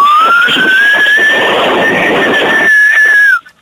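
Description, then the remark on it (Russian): A person imitates a whistling kettle with one loud, sustained, high-pitched whistle that rises slightly and holds steady for about three seconds, mixed with breathy noise, before stopping abruptly. “Это звук чайника со свистком.”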